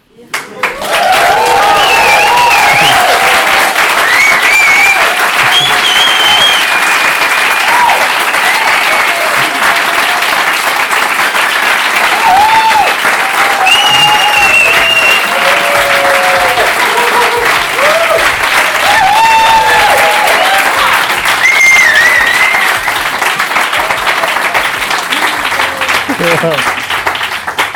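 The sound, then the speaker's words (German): Loud, sustained audience applause fills the whole stretch, a dense steady wash of clapping with scattered cheers and whistles rising above it. “Und ich bedanke mich bei euch, dass ihr in diesem Podcast dabei wart und freue mich auf einen unfassbar geilen Applaus am Ende.”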